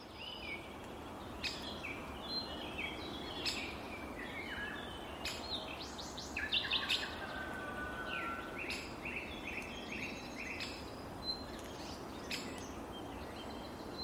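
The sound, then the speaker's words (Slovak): Great spotted woodpecker calls, sharp single notes repeated every couple of seconds over a steady outdoor rush of background noise, with other birds chirping faintly. “A ako taký ďateľ znie, môžete si vypočuť práve teraz.”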